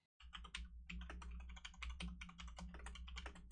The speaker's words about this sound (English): while Scott types ferociously on his keyboard